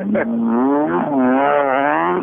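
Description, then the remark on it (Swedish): A small rally car, newly bought and on its first drive, drones steadily at a buzzy pitch, revving up and easing off in waves as it drives, with no talking over it. “Så vi, det här är det första vi åker i bilen.”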